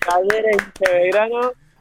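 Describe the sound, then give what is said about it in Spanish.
A quick burst of hand clapping, sharp irregular smacks landing over a sustained, tonal vocal sound that holds steady before stopping abruptly. “Aplaudimos todo acá.”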